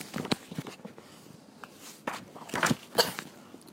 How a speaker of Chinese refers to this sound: 但是孩子们的喊声被另一个声音打断了，有人正从树林里朝他们跑过来。发出哗啦啦的声音。